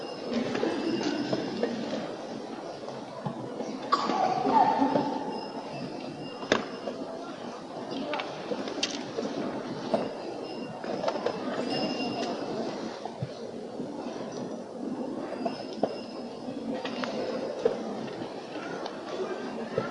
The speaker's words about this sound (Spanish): El sonido que habéis podido escuchar es el del chocar de la cadena con, con el suelo de, de Cristo Rey, también esos pequeños golpes que, que van dando los, los bastones en el suelo.